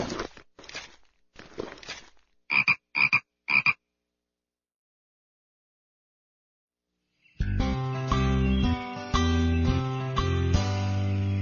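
A few rough, scratchy bursts, then three short, loud frog croaks in quick succession, followed by silence before steady music begins.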